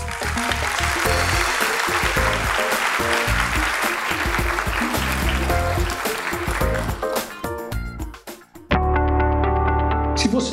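An audience applauds with dense, steady clapping for about eight seconds, then the applause fades out and music with a low, sustained tone starts.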